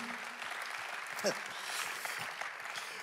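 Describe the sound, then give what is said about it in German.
An audience applauds for God, a steady dense wash of many hands clapping, with a brief louder shout or voice rising through the middle of the applause. “Lass uns für das Gott einen Applaus geben und glauben, dass das in meinem Leben geschieht.”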